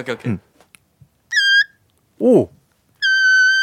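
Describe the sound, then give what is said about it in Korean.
A person shows off a dolphin-call impression as a party trick, with two shrill, squealing whistles, the second longer and held steady, separated by short spoken exclamations. “네, 돌고래, 돌고래 소리 돌고래 소리 잘 들었습니다.”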